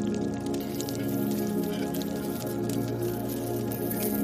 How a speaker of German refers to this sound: Wenn du bereit bist, atme tief durch und gieße die flüssige Tinktur in die Schüssel mit kaltem Wasser.